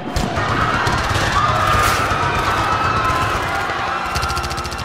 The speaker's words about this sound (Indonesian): Mereka menembakkan senjata ke arah lain untuk menakut-nakuti, namun akhirnya ada juga yang terkena tembakan.